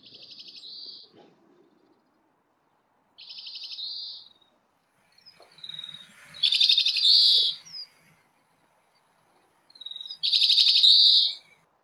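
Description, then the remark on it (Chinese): Grey-capped greenfinch calls on an overcast day: four high, buzzy trilled bursts, each about a second long and separated by short pauses. The later bursts are louder, and nobody speaks. “让大家听了近一分钟的金翅雀的叫声”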